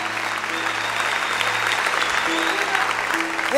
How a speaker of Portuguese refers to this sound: Que aplaudir, aplaudam direito.